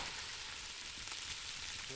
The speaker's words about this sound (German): Jetzt kommen die Zutaten in den Kessel und werden angebraten. Und der Kessel wandert zurück auf die Flammen.